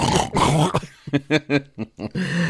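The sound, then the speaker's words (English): A voice imitates snoring, starting with a rough, drawn-out vocal rumble and then a quick run of five or six short, throaty snorts, fairly loud; someone pretending to be asleep. “Can't hear me snoring.”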